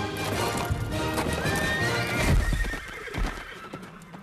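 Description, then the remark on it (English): A horse whinnies with a rising, wavering call while hooves clip-clop steadily, the hoofbeats loud with a few heavier thuds toward the middle. “Um, and if you notice, they do put a horse in there, but it's very quickly.”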